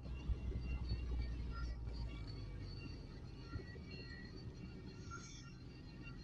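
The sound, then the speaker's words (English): A steady low rumble of a car moving through traffic, heard from inside, with faint whining tones above the road noise and no one talking. “I'm going to stop this podcast now because I'm about to crash into traffic.”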